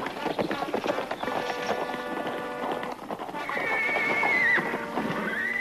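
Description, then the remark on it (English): Horses whinny loudly, one long high neigh rising and falling near the end, while hooves clip-clop steadily underneath throughout. “Mind if we water the horses?”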